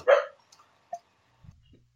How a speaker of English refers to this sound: your dog, shut up. I'm trying. I can't. I can't yell at her.